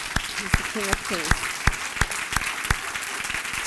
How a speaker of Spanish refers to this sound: Ellos saben adorar al Rey de Reyes y Señor de Señores, porque saben quién Él es y lo saben valorar a Él. Él ese fuerte aplauso.